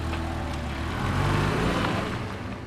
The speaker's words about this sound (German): wendet den Wagen und fährt davon.